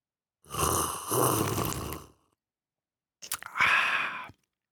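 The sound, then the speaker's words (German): Two long, loud slurps of a drink, the first lasting well over a second, then a short pause before a second wet, sucking slurp. No one speaks. “Ich habe selten jemand so schlürfen gehört.”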